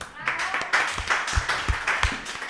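A crowd applauds a musician who has just played a piece, steadily for about two and a half seconds, a dense crackle of many clapping hands with a few heavier thumps in a loose rhythm and some voices cheering underneath.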